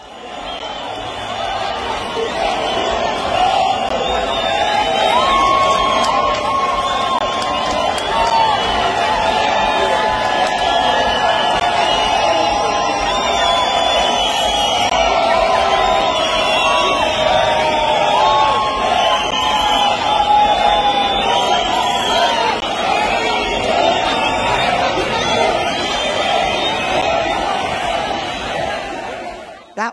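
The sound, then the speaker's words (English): A large crowd dancing and rejoicing in the streets cheers and shouts without pause, with whoops and excited voices rising over a steady, loud roar of many people celebrating together. “was the dancing and rejoicing in the streets that was prophesied in 2009 at the Seed Sowers Prayer Summit.”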